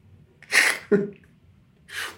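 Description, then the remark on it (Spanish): A voice imitates an elephant trumpeting: a loud breathy burst, then a short, harsh, voiced blast, followed a second later by another breathy rush, with no talking. “Y de repente se escucha el ruido del elefante, ¿no?”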